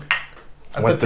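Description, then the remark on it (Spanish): A single bright clink of beer glasses knocking together in a toast, ringing briefly before fading, followed by people starting to talk over it. “Salud, compadre.”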